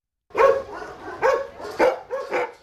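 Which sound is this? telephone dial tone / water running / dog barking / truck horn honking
dog barking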